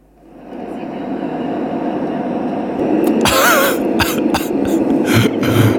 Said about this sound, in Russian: Включаю звук самолета.